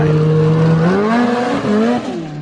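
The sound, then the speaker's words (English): A snowmobile engine revs loudly, its buzzing drone climbing steadily in pitch as it pulls away, with a brief dip before rising again; no voices. “Have fun out there long winter to go out on your snowmobile, so be careful.”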